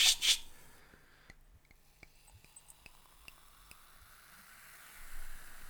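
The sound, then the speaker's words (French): Champagne fizzing in a small coupe glass: a brief bright hiss at the start, then a soft, steady crackle of tiny popping bubbles with scattered faint ticks, swelling slightly near the end. No voices. “Ah, c'est génial, c'est de la SMR de champagne.”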